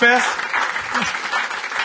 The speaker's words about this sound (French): je vous demanderai, s'il vous plaît, une bonne main d'applaudissement